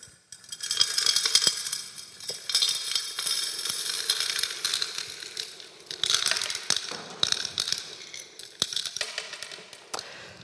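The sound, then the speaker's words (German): A teacher pours pebbles from a container into a glass jar in a steady, dense clatter of small stones clinking against glass, continuing for several seconds with a few sharper knocks near the end. No voices. “Darauf bückte sie sich und holte ein Gefäß mit Kieselsteinen hervor und füllte das Glas.”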